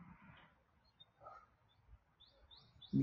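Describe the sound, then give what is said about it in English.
Faint birds chirp outdoors at sunset, with a few short high tweets scattered over a quiet background and a brief low thump near the end. No one speaks. “I don't know if you can hear these birds out here, but they're all having fun.”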